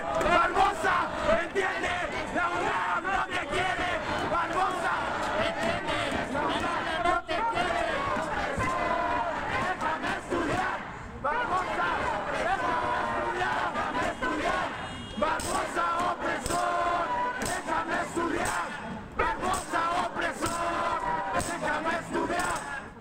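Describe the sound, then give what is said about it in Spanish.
A large student protest crowd in Puebla chants loudly and continuously during a demonstration, many voices shouting in rhythmic unison with sharp bursts of yelling rising above the dense roar. “Y bueno, pues comentarte que esto es parte de lo que se escuchó hace rato en la manifestación de los estudiantes.”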